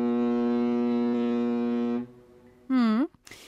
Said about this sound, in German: Denn auf dem Meer, da kann der Nebel so dicht sein, dass man nicht mal mehr die Hand vor Augen sieht. Und zu diesem Zweck gibt es eine Erfindung, und zwar die Nebelhörner, also das Nebelhorn. Und das klingt dann zum Beispiel so.